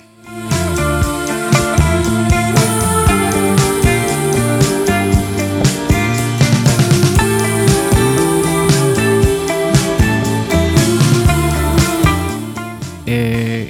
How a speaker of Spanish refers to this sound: así es como luce por fuera el recopilatorio y por dentro suena así.